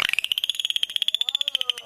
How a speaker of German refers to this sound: Delfine. Und zwar keine dressierten, sondern freilebende, aber ja, sagen wir mal, dem Menschen freundlich gesinnte Delfine.